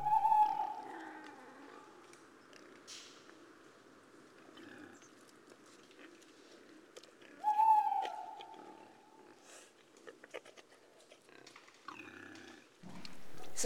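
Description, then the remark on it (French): A rutting stag bellows twice, each a loud, drawn-out moaning roar lasting a second or two, separated by several seconds of quieter outdoor background with faint scattered rustles. “Le Brame”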